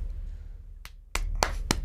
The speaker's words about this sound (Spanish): para qué paran la entrevista para aplaudir? Bro, porque eso es tremendo éxito. honestamente, es tremendo éxito.